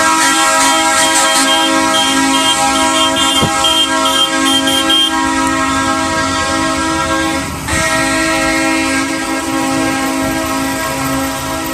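The horn of a yellow parade train blares loudly and almost without pause on Calle Guanajuato at the corner with Querétaro, a steady, multi-toned chord that holds for about twelve seconds with one brief dip near the end.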